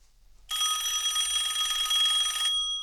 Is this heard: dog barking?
no